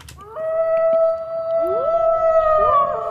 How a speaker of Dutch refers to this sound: Wel, dat huilen van wolven, dat wordt denk ik zwaar overschat.